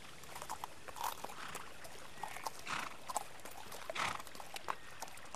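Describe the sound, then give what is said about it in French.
A horse's hooves clip-clop at an uneven walking pace, the knocks fairly soft over a steady hiss of background noise, with no voices; a horse ridden on an expedition in Celebes, with a cart carrying baggage. “Un indigène sachant un peu le Toraja, un cheval pour moi, un chariot pour mes bagages.”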